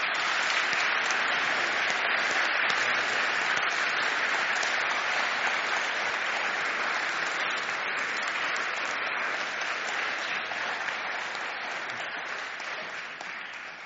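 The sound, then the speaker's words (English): An audience claps steadily for about fourteen seconds at the close of a morning Christian gathering, a dense, even wash of applause with no voices, tapering off slightly toward the end. “Um, can we give him another clap?”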